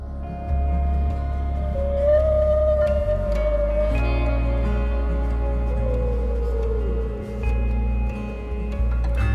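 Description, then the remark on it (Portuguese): Whale song: long, slowly gliding mournful tones rise and fall over a deep, steady underwater rumble, with no voices present. “Recebam a energia das baleias.”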